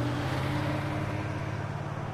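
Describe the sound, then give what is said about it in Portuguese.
A steady car interior rumble of engine drone and road noise while driving in traffic, continuous with no clear passing vehicles or voices. “Alô, eu estou no trânsito, não tem como falar, tchau.”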